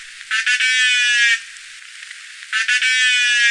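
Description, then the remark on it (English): Two loud, nasal, buzzing honks from an animal, each about a second long with a strong harmonic stack, like a child's toy trumpet, separated by a short pause. The call is clear, is not a burst pulse, and has no voices. “It sounded like one of those things that kids blow in. A trumpet? Yeah, like a trumpet or something.”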